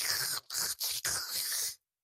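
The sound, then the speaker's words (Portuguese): A voice imitates the noisy slurp of a straw sucking up the last dregs of a Coca-Cola, mostly ice, during a film in a cinema: four hissy, gurgling bursts in quick succession, fairly loud, then silence. “Estás a ver um filme e ouvir o.”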